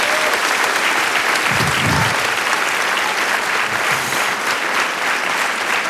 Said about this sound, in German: Großer Applaus.